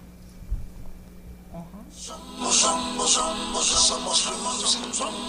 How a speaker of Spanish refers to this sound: Teníamos una, una pequeña musicalización que tienen aquí, pero la vamos a poner muy brevemente porque ustedes decían que era una canción que tiene que ver con la parte de ustedes. Vamos a escuchar unos segunditos